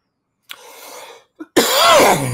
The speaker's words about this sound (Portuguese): Eu vou pedindo desculpas pela tosse a você e ao público, mas está difícil.